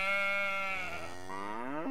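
A sheep lets out one long, loud bleat, its wavering voice drawn out for about two seconds before lifting sharply at the very end.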